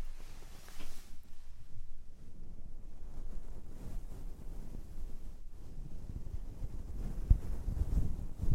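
A brush strokes steadily across a microphone, giving a continuous low, rumbling scratchiness with uneven swells and a few sharper crackles toward the end. No one speaks.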